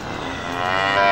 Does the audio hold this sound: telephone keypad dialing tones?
no